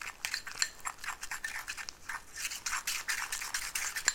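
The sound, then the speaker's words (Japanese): Chopsticks scrape and clack against a plate in quick, continuous strokes while sticky natto is stirred, a moderately loud rhythmic rasping with no talking. “思った以上に大した音はしないこれほとんど箸箸が皿にこすれてる音 納豆だよ”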